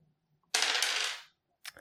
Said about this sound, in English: okay so i blast him with my laser cannon or i attempt to roll it yep two dice